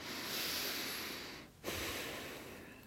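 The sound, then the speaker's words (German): A voice imitates deep, forceful yogic breathing: a long, steady rushing inhale, a brief pause, then another loud airy breath, with no talking. “Und das war ganz tiefes Atmen und das hat mich so beeindruckt, dass von dem Moment an war für mich klar, wenn ich wieder zurück bin in Deutschland, ich will Yoga üben, Yoga lernen.”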